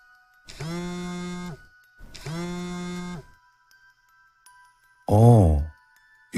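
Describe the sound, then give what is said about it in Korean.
A phone rings twice with a steady electronic tone, each ring about a second long with a pause between, for an incoming call from an elementary school classmate, then a brief voice is heard as the call is picked up. “그저 그런 별다른 것 없는 인생을 살고 있던 도중, 초등학교 동창에게 전화가 왔었다.”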